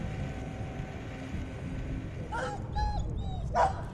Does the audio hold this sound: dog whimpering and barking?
yes